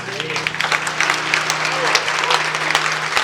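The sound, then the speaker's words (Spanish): An audience breaks into steady applause, a dense, continuous patter of many hands clapping at an even loudness for a few seconds, with a low steady hum running underneath. “Un aplauso, ¿no?”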